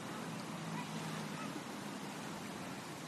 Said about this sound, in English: You may be getting a little, uh, a little wind noise. And actually, I think it's just the sound of running water. Let me just listen a minute.